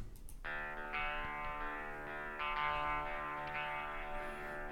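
Heavily distorted electric guitars chug through a dense, sustained riff after a brief quiet start, loud and full, with layered harmonic tone like a progressive metal track.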